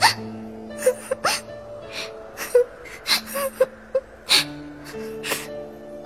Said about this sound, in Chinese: 拇指姑娘哭了起来，她身体那么瘦小，那么脆弱。